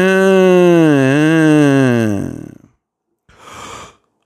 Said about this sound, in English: oh my goodness. I just yawned. Oh my goodness. Am I that tired? Yes, indeedy.